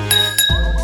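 Two quick glass clinks ring out, a toast in an SDS FM radio spot, with bright, sustained ringing tones that linger before a low, muffled swell takes over.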